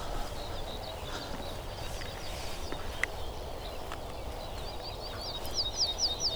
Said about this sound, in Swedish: Jag tycker det låter som det är ortolan överallt nu.